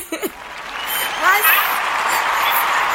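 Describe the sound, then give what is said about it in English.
A round of applause on the Sister Speak Show, welcoming a special guest, a singer, calling in live. It swells up after a brief opening sound and carries on steadily as dense clapping, with a few high whoops and cheers rising over it. “We must give a round of applause for my sister queen, songstress”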